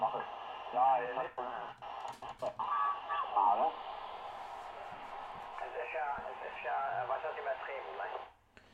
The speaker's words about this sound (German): LSB und dann abstimmen. Man hört es also auch, ob es SSB ist.